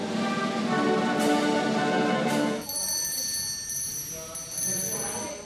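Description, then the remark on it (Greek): A small traditional ceremonial handbell rings with bright, shimmering high tones that linger and fade over a busy background of crowd noise and murmuring, at the handover ceremony at the prime minister's residence where Mario Draghi passes the bell to Giorgia Meloni. “Ο Μάριο Ντράγκη παραδίδει στην Τζόρτζια Μελώνη το παραδοσιακό καμπανάκι και μαζί με αυτό τη διακυβέρνηση της χώρας.”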